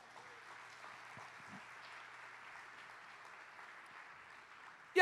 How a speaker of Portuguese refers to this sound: Dá Jesus uma salva de palmas.